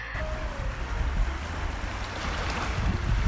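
Ocean waves wash steadily onto an island shore in a broad, hissing roar with a deep low rumble, swelling slightly louder toward the end, mixed with some wind noise. No one speaks.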